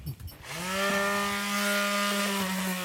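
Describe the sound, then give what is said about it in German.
An electric sanding machine switches on after a brief rustle, quickly spinning up to a loud, steady motor whine with a buzzy hum that runs continuously. “So, dann werde ich jetzt mal hier meine Schleifmaschine anschmeißen.”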